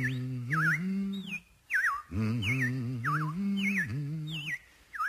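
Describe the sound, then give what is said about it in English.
Robins chirp in spring in short, bright, warbling bursts, repeating steadily, over a sustained low humming voice that rises and falls beneath them. “Well, the robins are back. That's a sure sign of spring.”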